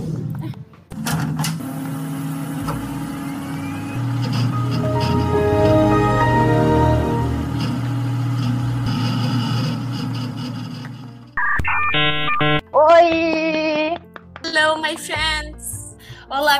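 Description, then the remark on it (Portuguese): A steady, low droning rumble of an airplane passing overhead swells and holds for about ten seconds, then cuts off as brighter voice-like sounds take over. “Foi só começar a gravação que começou os aviões.”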